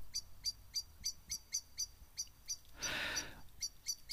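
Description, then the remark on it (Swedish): A Eurasian blackbird's alarm call: a steady series of sharp, metallic chinking notes repeated several times a second, briefly overlapped by a soft rushing noise partway through. “Sen för dig som inte kände till så har koltrasten ett läte till. Och det är ett varningsläte.”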